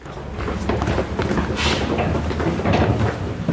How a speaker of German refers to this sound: Wir gehen jetzt einen ganz engen niedrigen Gang entlang. Er ist mit Ziegelsteinen bemauert und alles halt und es riecht hier sehr modrig.